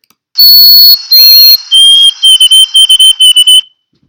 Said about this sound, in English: Okay, so that's a white-throated sparrow, and they've been singing that tune for, for years, and they've been studied and followed for years.